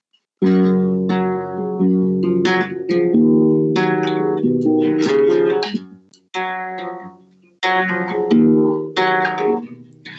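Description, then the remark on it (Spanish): A lone guitar plays a melodic passage of ringing, sustained chords and notes, fairly loud, with a couple of brief pauses before the phrase picks up again. “Y esta canción encima, en el disco, si la van a escuchar, suena así, porque no tiene nada más que una guitarra.”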